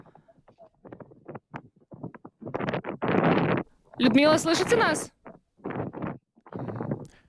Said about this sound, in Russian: Я вас очень, очень плохо. Я очень... вас очень плохо слышу. Здесь очень сильный ветер.